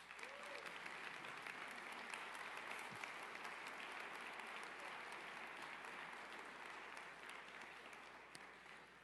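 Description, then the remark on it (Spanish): A crowd claps steadily for several seconds, giving a round of applause to Jesus, a dense, even wash of applause that holds its level throughout before easing slightly at the end. “Un aplauso a Jesús.”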